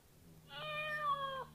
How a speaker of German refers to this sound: Genau, die Katze macht miau